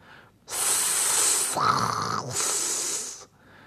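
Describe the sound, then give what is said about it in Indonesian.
Loud hissing from the snakes on Medusa's head in two long bursts, a breathy rasp briefly dipping into a lower throaty tone between them, with no voices present. “Ular-ular ini kemudian mendesis.”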